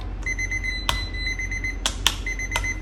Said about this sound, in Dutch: De, ehm, de ontdooier gaat altijd af, zodat je weet dat je het vlees of het product hiervan moet keren.